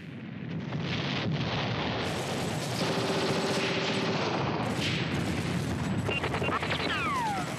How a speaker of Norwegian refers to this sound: Dette er lyden av kamphandlinger under andre verdenskrig. I Narvik kjempa britiske, franske, polske og norske styrker skulder ved skulder.